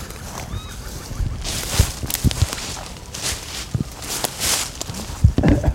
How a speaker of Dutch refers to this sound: En helemaal in reporterstijl neem ik ook eventjes het geluid op van de voetstappen.